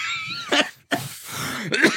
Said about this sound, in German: Boah, hör doch mal auf, in das Mikro zu husten. Wie widerlich ist denn das?